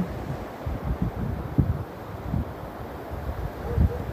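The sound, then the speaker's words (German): A steady, low rush of ocean waves with soft swells rising and falling, blended with a breezy hiss and no voices. “Meditation mit Meeresrauschen zum mentalen Abschalten und Einschlafen”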